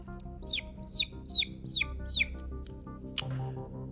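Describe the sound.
A voice imitates a chick with five quick, evenly spaced falling peeps, followed by a single sharper, higher squeak near the end, clear over a low hum.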